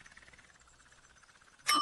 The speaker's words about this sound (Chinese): 锣很大声，我们可以敲锣，就像打鼓一样。我们的朋友听到一定会立刻赶来。